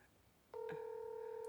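phone dialing tones

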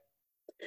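sneeze

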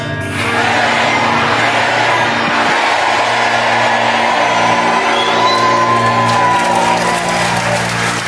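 audience applauding and cheering

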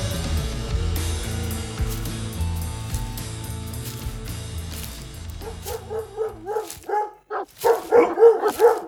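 dogs barking and whimpering

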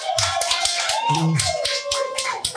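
audience applause

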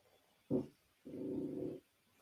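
dog panting and growling

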